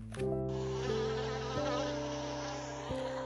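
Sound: bees buzzing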